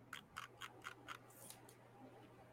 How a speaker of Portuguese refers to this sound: Que diabo de barulho é esse, mano? É o scroll.